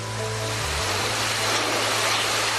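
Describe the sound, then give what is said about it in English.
Heavy monsoon rain pours down in Thailand, about 200 miles from the Malaysian border, pounding and bouncing in a dense, steady roar that fills the whole scene, with a low engine hum droning underneath. No one speaks. “It just pounds and bounces. I've never, I've never ridden in rain like it. I suppose that's um, monsoon rain.”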